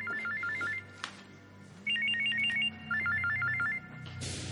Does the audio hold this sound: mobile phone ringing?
yes